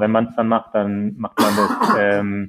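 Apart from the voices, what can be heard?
sneeze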